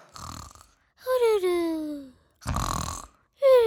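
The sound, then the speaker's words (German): A voice imitates loud snoring: rough, rasping inhales alternate with drawn-out, falling groaning exhales in a slow, repeating rhythm, with no other talk. “Das Schnarchen wurde immer lauter.”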